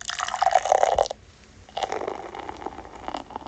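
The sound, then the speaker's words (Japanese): A can of Minatoyama Lager beer is opened and poured into a Starbucks mug: a gurgling, fizzy splash for about a second, a brief pause, then a steady carbonated fizzing pour that continues to the end. “開けていきたいと思います。”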